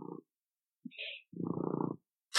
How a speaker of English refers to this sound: I hear a cat purring. cat purring. should I? Is, is, that disturbing? Should I? try to kick her off my lap?